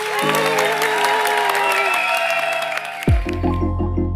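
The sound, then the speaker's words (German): A crowd claps loudly and steadily for about three seconds, with whistling tones drifting through the applause. A deep, pulsing synth tune then cuts in over it. “Und ein großer Applaus jetzt für euch alle.”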